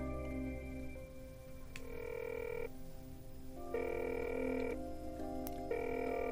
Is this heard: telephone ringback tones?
yes